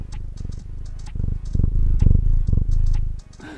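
A pet cat named Matú purrs after climbing up to walk, a loud, steady, rumbling purr with a regular pulsing rhythm, briefly easing off near the end.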